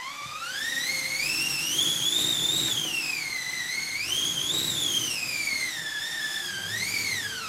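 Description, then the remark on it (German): An orchestral wind machine, a wooden drum with cloth stretched over it, is turned so the drum rubs the cloth; it howls steadily for several seconds, its whistling pitch swelling up and sinking back down in slow waves, fairly loud with no voices. “So heult der Wind. Der Wind von der Windmaschine.”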